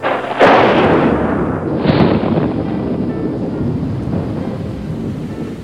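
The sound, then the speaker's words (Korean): A sharp crack of thunder breaks out, followed by a second rumbling burst, over the steady hiss of heavy rain pouring down throughout: an unseasonal thunderstorm with lightning and heavy rain; loud, with no voices. “때 아닌 천둥 번개를 동반한 폭우가 쏟아져 내렸기 때문입니다.”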